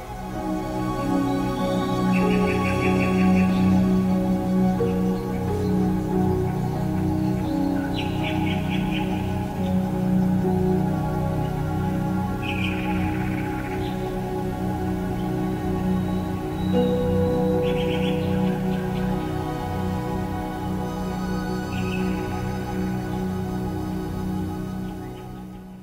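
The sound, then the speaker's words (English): Short, high phrases of a recorded nightingale's song, trills repeating every few seconds, played back over a steady, sustained orchestral passage of strings and winds in the third movement of Ottorino Respighi's 1924 orchestral poem The Pines of Rome. The bird sits lightly on top of the music. “Though it did no more than play back the recorded sound of a nightingale, it was still the cause of considerable debate.”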